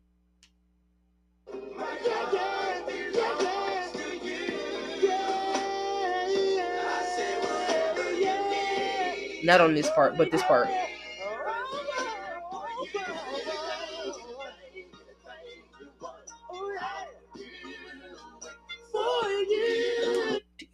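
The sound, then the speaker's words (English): An R&B song plays steadily with a sung vocal line over a full backing beat and a beat breakdown in the background, and a man's speaking voice briefly cuts in over the music in the middle and at the end. “did you hear the beat breakdown in the back?”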